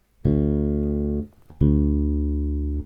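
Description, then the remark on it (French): The same D note played twice, once on the open D string and once fretted, in a home studio: two sustained notes with a short pause between, each ringing about a second, full and harmonically rich, with no talking. “c'est encore plus flagrant, j'ai envie de dire, en tout cas chez moi ici, là, dans mon studio, c'est plus flagrant, Ré à vide. Il y a de l'air, ça respire, ça vibre, et là j'ai un son plein, j'ai un son rond.”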